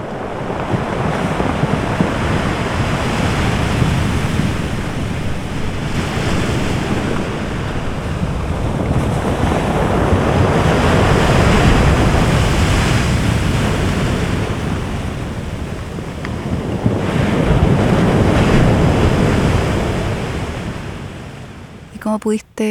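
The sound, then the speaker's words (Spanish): Stormy sea waves crash against the shoreline rocks of an island during a storm in a deep, continuous roar, surging in heavy swells every few seconds with gusty wind noise throughout. “Grabé también el sonido del mar durante esta tormenta golpeando contra las rocas del borde costero que hacían un sonido profundo, increíble.”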